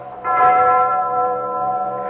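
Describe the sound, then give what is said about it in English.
A large alarm bell rings out loudly, one strong clang swelling into a sustained, shimmering metallic hum that keeps resonating without fading, with no voices. “Ring the alarm bell! Ring out! Ring out!”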